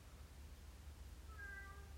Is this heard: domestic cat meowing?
yes